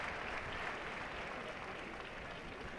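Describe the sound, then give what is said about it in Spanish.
Steady, dense applause from the whole crowd in a bullring during a bullfight at a fair, applauding a lance thrust into the bull: a continuous wash of clapping at an even level throughout, with faint murmuring voices mixed in underneath. “ahora mismo está toda la plaza aplaudiéndole.”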